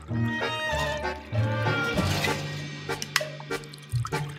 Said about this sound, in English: Okay, okay, got it. Now I'm spitting all over the place. Jesus, I'm a mess.